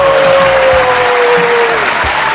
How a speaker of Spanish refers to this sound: Y ya estamos al aire, bienvenidos a un nuevo capítulo de Zona de Sacrificio. eso aplausos.